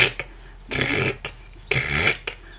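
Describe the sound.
A voice imitates an old rotary phone being dialed, making two long, raspy, gravelly "krrk" noises separated by a pause, with short clicky breaths between, fairly loud.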